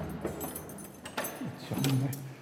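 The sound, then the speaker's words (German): Old keys, original from 1835, jangle and clink at a door, a string of bright metallic rattles and taps, followed near the end by a brief low, drawn-out groan, likely the door creaking. “die Schlüssel sind noch original von 1835”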